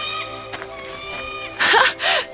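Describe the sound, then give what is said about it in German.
A falcon calls twice from above, two shrill, piercing cries in quick succession that stand out clearly over a faint, steady background tone. “Hörst du den Falken da oben?”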